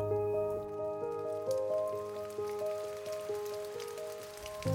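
Steady sleet patters down outdoors under a grey sky in mid-January in a continuous wet hiss, with a low sustained hum running underneath throughout.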